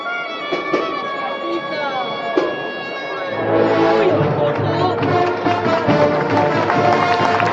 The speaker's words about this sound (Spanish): aguantando la revirada mientras suena este solo de corneta.